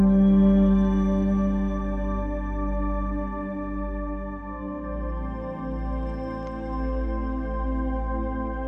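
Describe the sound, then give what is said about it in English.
A single voice chants the throat chakra mantra "Hum", a long, steady deep sustained drone with rich overtones that holds at an even, fairly loud level for the whole stretch, with no speech. “And as you speak this chakra mantra, it begins to clear your throat energy.”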